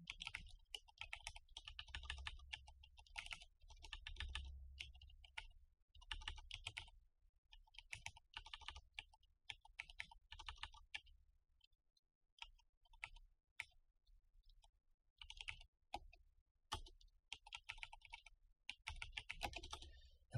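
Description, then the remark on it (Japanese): Fast typing on an unmarked (blank-keycap) computer keyboard: dense clattering keystrokes in bursts, with a sparser, hesitant stretch of scattered clicks midway as the typist struggles to type a word, before the rapid typing resumes. No one speaks. “なんかキーボードがうまく打てないんですよね、最近。”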